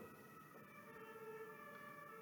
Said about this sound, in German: Egal ob, ob im Hintergrund gerade Feuerwehr oder Krankenwagen gerade rumfährt